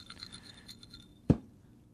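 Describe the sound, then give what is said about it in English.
Soft, gritty scraping of soil shifting inside a cup, broken by a single sharp knock against the cup partway through. The sound stays quiet and there is no talking. “I've brought in a cup of soil you can hear it.”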